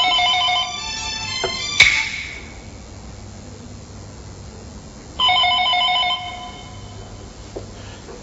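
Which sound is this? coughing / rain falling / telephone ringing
telephone ringing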